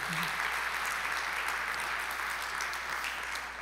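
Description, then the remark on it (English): Steady applause from a crowd for the worship team, a dense patter of many hands clapping at even loudness throughout, with no voices breaking through. “Um, can we give our worship team a clap?”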